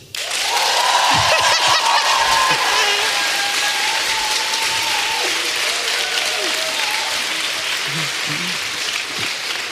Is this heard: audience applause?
yes